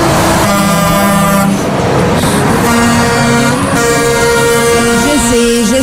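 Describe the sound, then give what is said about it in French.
Loud, overlapping air horns from a truckers' convoy blare almost continuously, several sustained tones layered together with brief dips and restarts, forming a dense honking chorus over a rumbling background. “on est tanné d'entendre ces bruits, je le sais, mais en même temps, c'est les camionneurs, le convoi des camionneurs, on, fait tout de suite l'association.”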